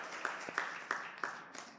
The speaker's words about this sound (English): Come on, give the Lord a big hand clap. Thank you, Lord.